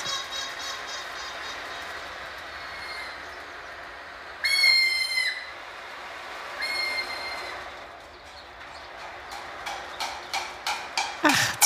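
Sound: cuckoo calling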